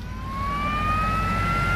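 An ambulance siren sounds as a single steady tone slowly rising in pitch, fairly loud, over a low engine rumble, with no one speaking. The ambulance is taking a sick father to hospital.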